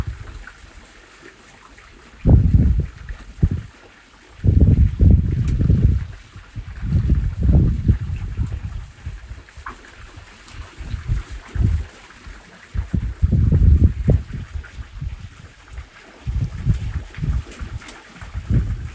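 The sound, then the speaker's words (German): Water flows close by, with a steady wash beneath repeated low, rumbling gusts of wind that swell and fade every couple of seconds. No one speaks. “Für die nächsten Momente lass dich einfach von dem Klang des Wassers neben dir, des Windes, und meiner Stimme in die Entspannung begleiten.”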